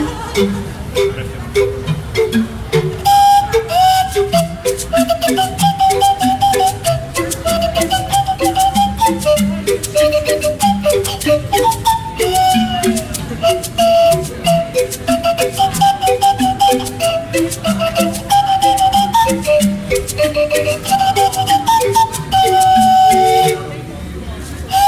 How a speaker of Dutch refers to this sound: Ja, zij maken muziek met eh, glazen flessen en zijn daar behoorlijk goed in.